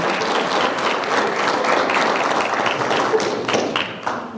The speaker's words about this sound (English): So let's clap for them. He's used to clapping from production.